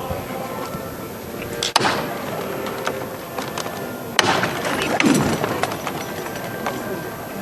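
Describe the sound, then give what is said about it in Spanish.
A capataz's llamador knocks twice, with sharp, loud metallic raps a couple of seconds apart, calling the bearers of the first float of the Hermandad de los Negritos, over a steady murmur of crowd noise. “Va, delante de, los acólitos, vamos a escuchar esta llamada.”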